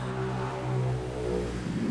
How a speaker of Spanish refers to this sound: tenemos bastante hecho, por Dios bendito, con estas motos. Menos mal que estoy en una hora, estoy bien temprano por la mañana. Según yo, a esta hora no pasaba nada, pero por Dios bendito.